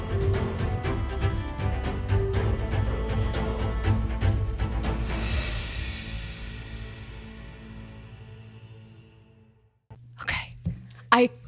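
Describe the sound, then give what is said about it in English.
As music fades out, a cockatoo lets out a few harsh, shrill squawks in quick succession, loud. “That was the bird. I love in all the chaos of this episode, the cockatoo is going”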